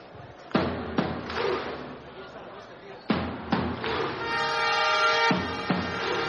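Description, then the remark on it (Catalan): Loud, sharp crowd claps land in slow unison over a murmuring crowd, then a long, deep horn blast drones before another big clap cuts in, the rhythm of a stadium Viking clap. “Toc Viking.”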